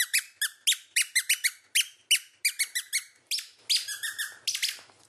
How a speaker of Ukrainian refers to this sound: а оце де какачка вабить, тобто зваблювати птахів. Ми називаємо зозулькою, а насправді це окарена. Це італійська назва, яка означає гусенятку.